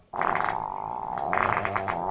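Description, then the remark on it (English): A loud, drawn-out squeaky fart sound, like skin sliding across a leather couch, with a fluttering, rippling texture that runs continuously for about two seconds with no talking. “Oh, um, the most leather couch fart.”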